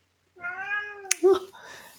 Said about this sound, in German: Sie wird nicht gequält übrigens. Sie schreit einfach nur, weil er denkt, er verhungert. Aber er verhungert nicht. Also an alle, die jetzt meine Katze schreien hören, ihr geht es gut. Sie will nur Aufmerksamkeit.